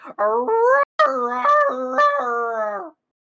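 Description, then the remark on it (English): Sunny, a husky-like dog in her stable, howls loud and sustained, her wavering, rising pitch yodeling along for about three seconds with one brief break for breath. “He's still scratching the door before eventually you see Sunny pop up in her own uh, stable, and you hear almost like a husky going.”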